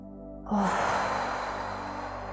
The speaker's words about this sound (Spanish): Vamos a respirar profundo. Vamos a meter todo el aire que nos entre en los pulmones.